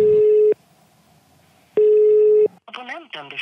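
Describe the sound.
Two long, steady electronic ringback tones on a phone line, separated by a quiet gap, followed by a voice starting to speak as the call connects to a recorded message.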